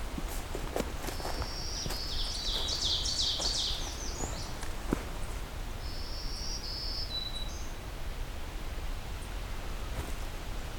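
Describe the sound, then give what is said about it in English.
A black-throated green warbler sings two buzzy, high-pitched phrases a few seconds apart, over a steady hiss of insects and scattered crunching footsteps. “looks like we'll be exiting here with Ovenbird, American Redstart, and some more black-throated green warblers.”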